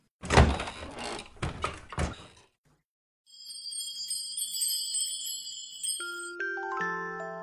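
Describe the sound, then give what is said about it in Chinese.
A few heavy thuds of knocking on a door, then a short silence before bright, ringing chime tones sound and step down into lower, sustained notes. “如果你愿意和我一起，那就请走过来，你只需要敲敲门。”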